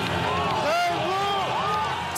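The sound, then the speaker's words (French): A dense crowd at Éric Zemmour's presidential campaign rally at the Parc des Expositions in Villepinte cheers and chants in unison as he walks through it. Many voices rise and fall together in a loud, continuous roar with sung tones swelling through the noise. “Hier, au parc des expositions de Villepinte, Éric Zemmour traverse la foule qui l'acclame.”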